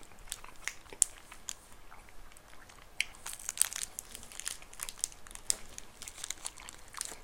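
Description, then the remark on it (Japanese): Crinkling and rustling of a plastic wrapper being torn open, mixed with crisp, crunchy bites into an ice cream monaka wafer filled with adzuki red bean and vanilla ice cream. Quiet, with no one talking. “アイスモナカうまいよねこのアイスモナカはね小豆が入ってる小豆が入ってるやつ小豆とこのバニラアイスが入ってるやつだね”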